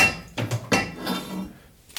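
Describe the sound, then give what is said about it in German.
An 81 cm metal pipe being clamped into a saw, where it will be sawn to length: several sharp metallic clanks and knocks in quick succession, followed by a softer rattling scrape that fades away, with no one speaking. “Mein nächstes Stück Rohr ist 81 cm. Das spanne ich mir hier ein.”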